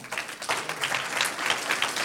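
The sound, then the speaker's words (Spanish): A church audience breaks into steady applause for the Lord, many hands clapping together in a dense, continuous patter that holds at an even level throughout. “Un aplauso al Señor.”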